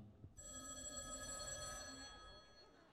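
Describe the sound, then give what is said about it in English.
A landline telephone's mechanical bell rings in one sustained, loud, metallic burst of about two seconds, then fades out, with faint background noise underneath. “you would have a phone probably like this one that you see right here in the days that you used to get a collect call, and, and it would ring something like this.”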